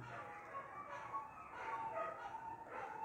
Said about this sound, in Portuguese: os cachorros do vizinho estão talvez concordando, os cães estão concordando ou discordando comigo. É isso aí, ó.